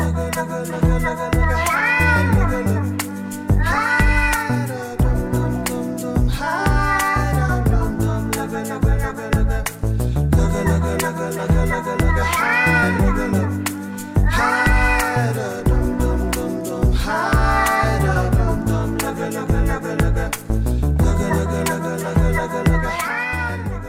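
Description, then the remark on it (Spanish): A cat's meows recur every few seconds, woven into a loud, steady song with a thumping beat, the sliding meow calls riding on top of the music like a melody. “Esta canción de fondo fue pura creatividad, talento y felicidad. Junto al lado de un, gatito, se los dejo.”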